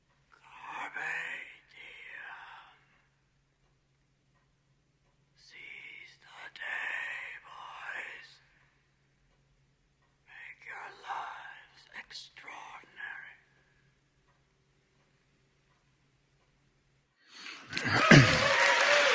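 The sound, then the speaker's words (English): An eerie, breathy whispering voice murmurs in three short bursts separated by silence, ending with a louder rush of noise. “If you listen real close, you can hear them whisper their legacy to you.”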